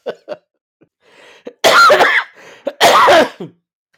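A couple of short throat sounds lead into two loud, harsh bursts of coughing, each broad and rasping, separated by a brief wheezy breath.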